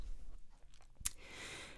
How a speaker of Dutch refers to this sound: Oh, ik moet even een paar keer slikken hoor.